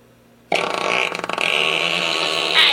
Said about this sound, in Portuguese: Peido longo